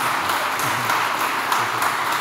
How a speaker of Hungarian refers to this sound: Egy nagy tapsot szeretnék kérni mindhárom képviselőtnek a közönségtől. Köszönöm szépen.